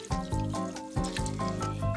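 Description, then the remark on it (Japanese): Water pours steadily into a cooking pot holding ground meat, a continuous splashing stream with hollow, tonal glugs that pulse unevenly throughout. No one speaks. “ここに水を入れていきます”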